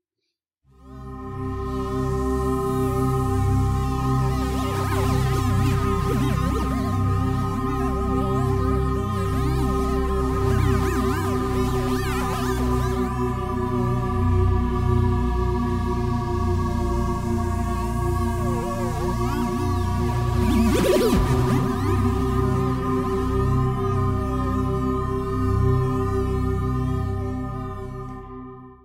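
Sonified magnetometer data from the Japanese-European BepiColombo mission's first flyby of Mercury on 1 October: a steady, layered electronic drone of sustained tones, with eerie wavering whistles and swooping glides drifting over it, fairly loud and continuous throughout, with no voices.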